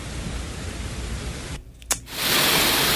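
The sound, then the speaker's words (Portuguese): A steady, dense roar of rushing floodwater pours down a street in the centre of Petrópolis, dipping briefly with a sharp knock before surging back louder and fuller. No one speaks. “Isso é bem no centro de Petrópolis, essa é a força da cachoeira que o apóstolo Fábio estava dizendo.”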